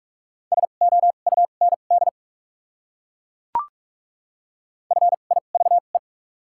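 Rapid Morse code beeps on a single steady pitch, sent at 45 words per minute with double character spacing, spell out a word in quick dots and dashes, then fall silent before a brief click and a second identical burst.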